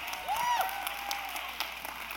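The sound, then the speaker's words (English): Parents in a church crowd applauding, a steady dense patter of many hands clapping at moderate volume. A brief whistle rises and falls through the clapping near the start. “Come on, parents, give it up.”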